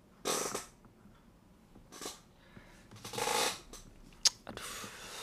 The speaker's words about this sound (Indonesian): Ish, berisik banget kursi gue nih